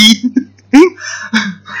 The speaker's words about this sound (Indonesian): aduh aduh oh kamu mes terus aku batuk-batuk ya?